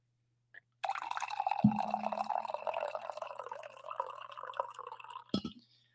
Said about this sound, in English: I think it's time we pour a little coffee